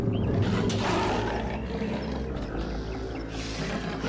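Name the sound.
lion roaring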